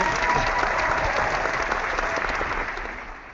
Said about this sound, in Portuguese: Tem sempre uma plateia desagradável para aplaudir o cara, enquanto o cara quer falar, a gente entende isso.